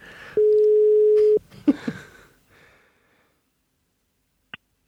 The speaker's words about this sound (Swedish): vi, vi, ringer och ser om han svarar. Ja, det kan bli spännande.